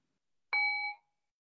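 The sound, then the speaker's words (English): A single strike of a small meditation bell, heard over Zoom at the start of a brief loving-kindness practice, rings out clearly on its own, a bright metallic tone with shimmering overtones that lasts about half a second before cutting off abruptly. “So I'll ring the bell. I have a little bell here.”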